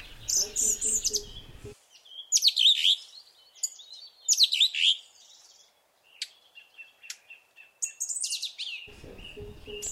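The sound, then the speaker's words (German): A song thrush, heralding spring, sings a run of loud, bright, varied phrases, some repeated, with short pauses between them; a voice is briefly heard at the start and end. “Die Singdrossel verkündet den Frühling, ist seit einer Woche etwa im Lande, würde ich mal sagen, wird äh, also immer präsenter und wenn Sie jetzt morgens mal so durch die Stadtrandgefilde streifen, dann können Sie die auch hören, die Singdrossel.”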